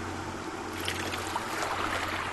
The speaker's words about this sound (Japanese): ボートの音が遠ざかっていく。